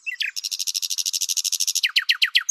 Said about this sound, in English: When you think of blackbirds, robins, wrens, dunnocks, wood pigeons, we've got plenty of bird song around us. And I think that isn't lost on most gardeners. And all of them are trying to say something, and all of them have got their own character.